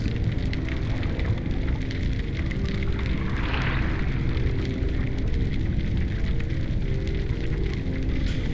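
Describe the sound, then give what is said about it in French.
Sea waves wash in a steady, continuous rush of noise, with one surge swelling partway through before settling back into the even roar. No voices are heard. “je me suis sentie apaisée parce que ça faisait des vagues et, ça me faisait du bien.”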